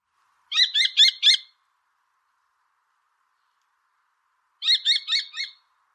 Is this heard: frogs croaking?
no